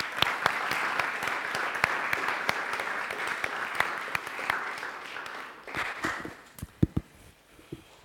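An audience applauds with a dense, steady patter of many clapping hands for about six seconds, then the clapping thins out into a few scattered, sharper claps before fading.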